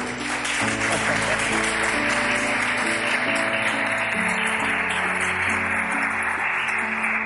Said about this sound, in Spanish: ¿Alguien quiere aplaudir por los pastores que Dios me dio a ustedes?